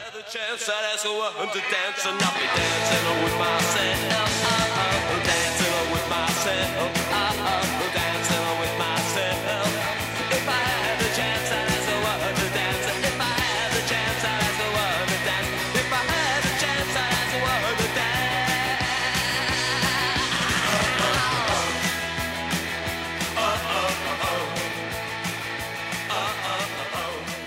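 A loud, driving punk rock song with a shouted male vocal over fast distorted guitars, pounding drums and a steady bass line, kicking in after a brief quiet start and staying dense throughout.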